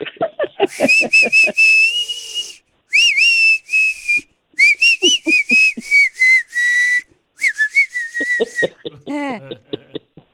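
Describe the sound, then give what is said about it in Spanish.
A person whistles a melodic tune in several sustained, wavering phrases, fairly loud, with brief bursts of voiced sounds or laughter between and at the end. “O mire, o chiflela. Cantada o chiflada.”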